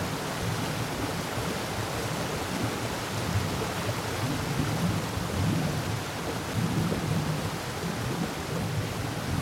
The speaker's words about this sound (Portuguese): E agora vamos ficar quietinhas que lá vem mais chuva.